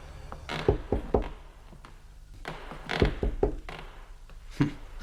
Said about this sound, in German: Justus wandte sich in Richtung Salon und klopfte vorsichtig an.